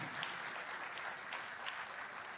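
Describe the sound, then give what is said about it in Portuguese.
A church audience applauds together, a steady, dense wash of clapping hands that holds at an even level for a couple of seconds with no voices over it. “Elas merecem uma palmas, irmãos?”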